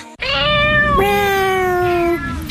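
A cat lets out a long, loud meow, its pitch dipping partway through before trailing off, with no one speaking.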